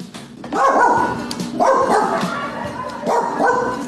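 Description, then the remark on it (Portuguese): Small dogs bark in loud, high-pitched yapping bursts during breakfast, several barks repeating roughly every second or so with a steady background underneath. “Os cachorrinhos ficam aí me acompanhando no café da manhã.”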